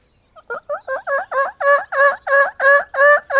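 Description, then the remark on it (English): A person imitates a turkey gobble with their mouth: a rapid run of about a dozen throaty, warbling pulses that start soft and quickly build to a loud, steady rattle, with no other sounds. “Actually, only one time I actually called, and I just did it with like trying to impersonate.”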